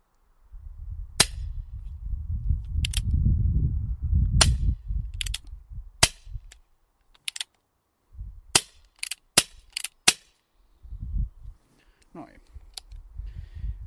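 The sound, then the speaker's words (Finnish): A toy cap gun, loaded with a cap roll, its hammer drawn back and trigger pulled, fires a series of sharp, crackling pops, some single and some in quick pairs, over low rumbling handling noise, with a voice murmuring in the background. “Ja nyt olisi sitten ase ampuma valmis, eli iskuri taakse ja liipasimesta.”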